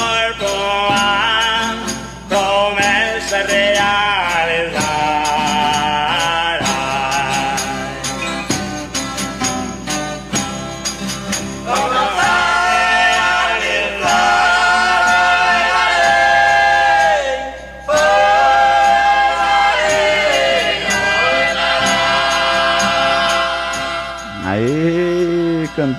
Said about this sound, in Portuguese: Cantoria boa, hein? Chega a né, rapaz? É até gostoso quando você tá, não. Ouvir uma cantoria gostosa assim, né?